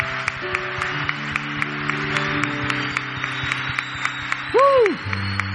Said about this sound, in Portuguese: Gente, aplaudam o Senhor. Glória a Deus.